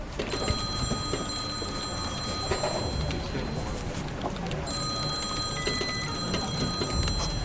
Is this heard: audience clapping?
no